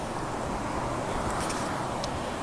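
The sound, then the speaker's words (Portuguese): Steady, dense roar of road traffic, cars streaming past, holding an even level throughout with no voices present. “Fora os carros que passam aqui, ninguém passar por cima de mim, tá ótimo, né?”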